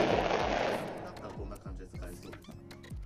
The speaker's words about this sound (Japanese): でもこれ多分花火だよねおそらくね何かがバチバチって感じになってるから余韻がね花火かなと思うんですけど実際どうなんでしょうかファジャーンって言ってるから多分そう